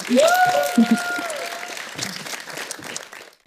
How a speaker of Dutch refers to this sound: Dames en heren, mag ik een warm applaus